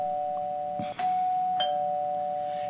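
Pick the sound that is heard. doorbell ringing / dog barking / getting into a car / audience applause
doorbell ringing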